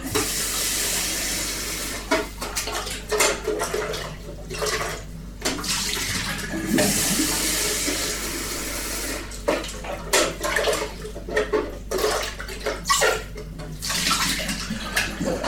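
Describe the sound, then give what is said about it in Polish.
Water with citric acid is poured out of a bucket, splashing steadily for the whole stretch, with sloshing bursts and gurgles as the bucket is emptied and rinsed, no talking. “Dobra, no to teraz Trzeba tą wodę z tego wiaderka wylać z tym kwaskiem. I opłukać to wiaderko.”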